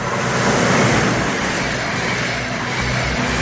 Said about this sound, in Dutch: Ja, zo'n trein.